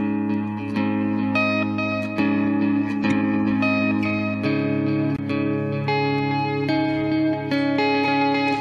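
An electric guitar riff drenched in delay, each picked note repeating in shimmering echoes that blur into a continuous, ringing wash of sustained tones, loud with no voices.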